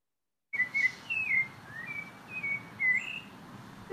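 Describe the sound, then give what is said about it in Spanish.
Birds chirp in a string of short, bright whistled calls repeating irregularly over a soft, steady background hiss, moderately loud, with no voices. “Ahí tenemos los sonidos de los pajaritos.”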